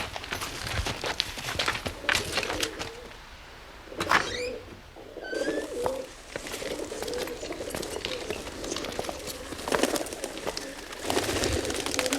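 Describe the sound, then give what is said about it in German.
Pigeons coo in low, soft repeated phrases, one wearing a green band ring on its right leg, mixed with shuffling and brief bird chirps over a busy, noisy background. “Seht ihr den Ring, den diese Taube an ihrem rechten Beinchen trägt, das ist der Verbandsring.”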